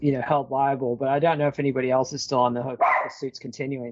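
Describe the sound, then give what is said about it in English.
A dog barks in short bursts while a man keeps talking over it, the barks mixing with and partly buried under his voice. “sorry about the dog”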